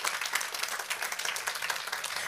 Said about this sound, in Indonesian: Boleh saya dengar tepuk tangannya yang paling meriah buat Yesus Tuhan kita?